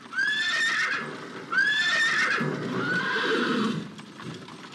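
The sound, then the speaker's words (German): A horse neighs repeatedly in bright, wavering whinnies over a steady rumble of hooves and rolling iron-shod wheels of a horse-drawn post coach on the move, wheels that cushion not even the smallest bump, carrying Beethoven. No one speaks. “Nachdem der Kater verflogen ist und Beethoven sich an die Schmerzen gewöhnt hat, die eisenbeschlagene Postkutschenräder halt mal mit sich bringen, weil sie auch nicht den allerkleinsten Stoß abfedern”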